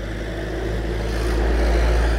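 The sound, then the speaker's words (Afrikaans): A heavy truck carrying a load of leaves and branches drives through a park, its engine a deep continuous rumbling drone that grows slightly louder as it approaches and passes, with no voices over it. “hier kom nou 'n vragmotor aangery met 'n klomp blare en takke agterop.”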